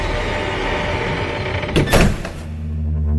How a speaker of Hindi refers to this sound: फिर दरवाजे के बंद होने की एक आवाज आई